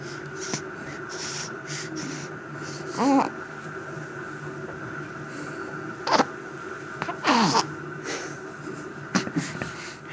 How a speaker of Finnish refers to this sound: Pientä tuhinaa tulee kuusviikkoiselta pojalta